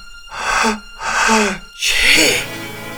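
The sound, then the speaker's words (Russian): A voice acts out a princess's sneeze: two breathy, rising 'ah' gasps build up, then a loud, sharp 'choo' burst ends it. “Чихнула принцесса, и все вокруг перевернулось вверх ногами.”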